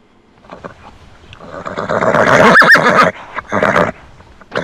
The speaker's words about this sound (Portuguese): Que é isso, cavalo?